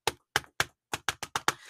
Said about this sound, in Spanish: está sentado en una silla, taipeando escribiendo. Eh, cuando, eh, todos saben en las clases cuando escuchan este sonido